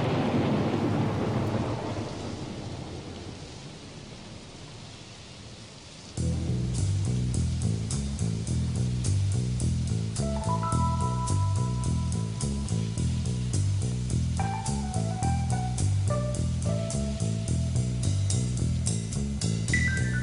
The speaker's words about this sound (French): écoutez ce morceau de 7 minutes …